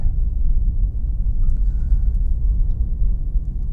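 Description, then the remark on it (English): A steady, heavy low rumble of a car with new snow tires driving on a dry road in traffic, continuous and even throughout with no breaks, like tire and engine noise heard from inside the vehicle. “um, on the dry, they're not they're um, they're very uh, um, uh, there's a lot of traffic around here. I got to concentrate on my traffic.”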